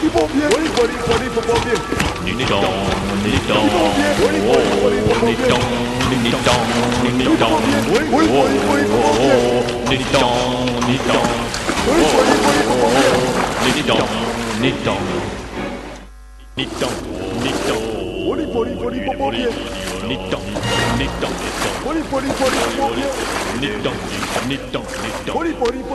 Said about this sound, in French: Leur pirogue se rapproche. Leur pirogue se rapproche. Ils vont nous rattraper.